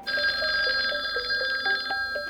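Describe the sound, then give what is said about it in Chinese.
A telephone rings with a kidnapper's awaited call, a steady, rapidly trilling electronic tone, bright and fairly high-pitched, sounding continuously for a couple of seconds with no voices. “电话终于来了。”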